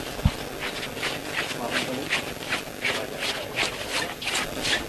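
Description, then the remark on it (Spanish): Float bearers' slippers shuffle across the ground in the rachear step, showing how the float is moving, in a steady marching cadence of about two soft scraping scuffs per second, with a low murmur of voices underneath. “El sonido del rachear de las zapatillas le indica cómo es el movimiento.”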